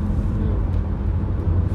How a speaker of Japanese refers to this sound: あの車帰路についています帰路についています 今移動中の車の中で